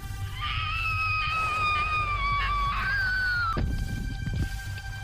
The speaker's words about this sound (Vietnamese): Cô chỉ kịp kêu lên một tiếng